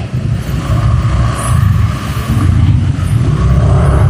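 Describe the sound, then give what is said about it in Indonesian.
A steady, loud rumble of car engines, vehicles idling and creeping in a traffic jam on a narrow road, continuous for the whole stretch with no voices. “aduh ini macet nih ini paling gue potong juga nih kalau macet nih gue diam aja kalau macet nih ini jalan udah sempit”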